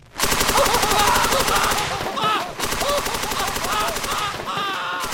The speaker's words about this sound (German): Wenn wir da hören, das ist Mickey Mouse die mit einem Maschinengewehr Leute abballert.